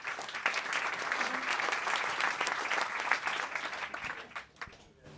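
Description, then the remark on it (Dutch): An audience applauds to welcome the second speaker, a housing corporation director, to the stage, steadily for about four seconds, a dense wash of many hands clapping at moderate volume, then tapers off into a few scattered claps. “Welkom. applaus.”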